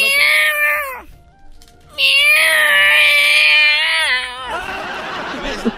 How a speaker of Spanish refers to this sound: Acabas de comprar gatos, estúpido.